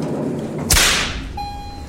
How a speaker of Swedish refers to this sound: Vet du hur den där pisksnärten uppstår, alltså vad det är som låter? Nej, det är väl en liten, liten, liten sonic boom.